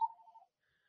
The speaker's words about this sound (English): Oops. Telephone ringing.